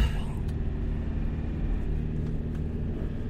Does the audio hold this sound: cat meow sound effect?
no